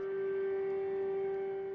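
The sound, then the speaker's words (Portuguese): A civil defense siren sounding nationwide across China, including in Wuhan, on a National Day of Mourning for COVID-19 dead, holds a steady, unbroken wail throughout, its tone sustained without rising or falling, moderately loud with no voices present. “O presidente Xi Jinping declarou o Dia Nacional de Luto e as sirenes soaram em todo o país, inclusive em Wuhan, onde tudo começou.”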